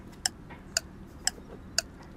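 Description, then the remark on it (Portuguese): A clock ticks steadily, four crisp clicks spaced about half a second apart, clear against a faint low background hum, with no voices. “Ora, contra relógio.”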